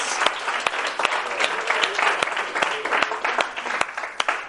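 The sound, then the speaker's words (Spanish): An audience claps steadily for several seconds to applaud the champions who got three in a row, a dense patter of many hands with a few sharper individual claps popping out of the wash. “Let's applaud our champions.”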